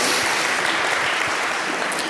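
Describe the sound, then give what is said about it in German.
Steady audience applause: a dense, even wash of many hands clapping at once, sustained at a constant fairly loud level for the full couple of seconds, with no voices. “Und ich, ich wollte jetzt keinen Applaus haben, darum ging es mir nicht.”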